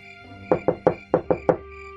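Six sharp, loud knocks on a wooden trunk, struck in two quick groups of three with a short pause between, ringing against a faint steady background hum.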